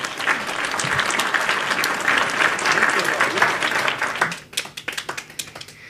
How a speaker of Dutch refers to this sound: Prachtig. Applaus.